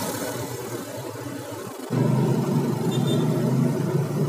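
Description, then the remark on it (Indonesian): A car engine rumbles steadily amid busy city traffic at a red light in Johar, Karawang, Indonesia, then grows noticeably louder about halfway through as the light turns green and the vehicle pulls away and accelerates. No one speaks. “lampu merah um, Johar lumayan rame karena hari ini hari terakhir kerja udah hijau”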